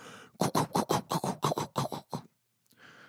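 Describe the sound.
A voice imitates a TVA news helicopter by mouth with a quick, steady string of about nine breathy, chopping bursts, fairly loud, then breaks off into a short pause and a final soft hiss.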